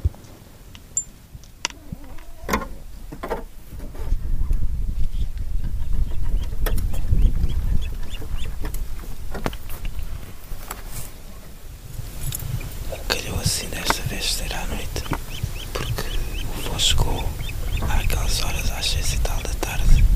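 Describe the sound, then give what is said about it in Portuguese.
Juvenile ospreys, young birds from Sweden and Finland being brought by biologists near midnight to their nests on the shores of Alqueva in the Alentejo, give repeated high, thin squealing calls in the second half over muffled handling noises, clicks and soft whispered voices. “Estes biólogos aceitam que se lhes chame águias pesqueiras.”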